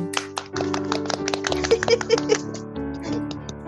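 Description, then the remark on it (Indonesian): Scattered hand clapping, a crowd applauding in quick uneven bursts over a steady musical backing, moderately loud. “Boleh kita berikan dong tepuk tangan sekali lagi untuk semua supermom yang ada di dunia ini.”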